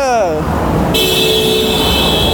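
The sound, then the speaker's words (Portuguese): A car horn blares in one long, loud, sustained honk over steady road traffic noise, preceded by a short sliding tone at the start. “Vocês ouviram essa buzina?”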